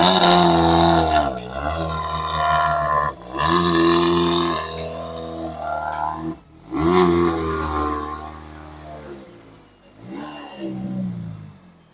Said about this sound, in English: Escort Cosworth, this probably is the, uh, the best sounding anti lag of the world rally cars, especially in that period.